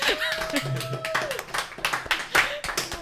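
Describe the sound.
A crowd breaks into steady, dense applause, many hands clapping at once for about three seconds, fairly loud, with a few voices and a sustained cheer mixed in.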